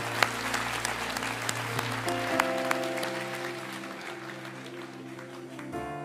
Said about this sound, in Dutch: Laten we elkaar een applaus geven. Dank je wel. Wauw.